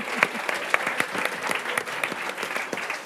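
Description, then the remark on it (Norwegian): A short burst of applause from a small group, steady dense clapping with a few sharper individual claps standing out, moderately loud throughout. “Kan ta en applaus, da.”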